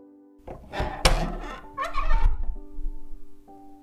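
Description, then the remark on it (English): The big entrance doors of a library creak open: a heavy thunk, then a drawn-out, wavering groan of old hinges, fairly loud over a steady low hum. “Suddenly, the big doors used to enter the library creaked open.”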